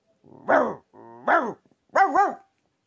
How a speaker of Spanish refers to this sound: Y la ratita le preguntó, no sé, ¿tú por las noches qué ruido haces? Yo ladro así,